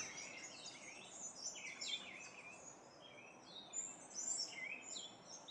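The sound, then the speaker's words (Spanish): Faint, distant birdsong in nature with overlapping high chirps and short trills from several birds, fluttering over a soft, steady background hush, with a river roaring far off beyond the birds. No one speaks. “Escucha los sonidos de esta naturaleza a lo lejos.”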